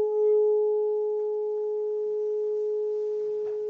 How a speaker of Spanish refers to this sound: Y vos tenés que eh, seguir la circunferencia del cuenco después de tocarlo para que ese sonido se mantenga, así como ahora. Y genera esa ondulación, que son variaciones de frecuencia.